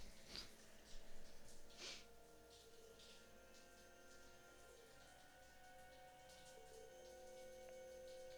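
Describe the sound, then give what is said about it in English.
Faint rain patters outside at night, with a few soft droplet taps in the first seconds, then a quiet steady wash over a low electrical hum. No one speaks. “Is it raining outside? It was supposed to rain tonight, yeah.”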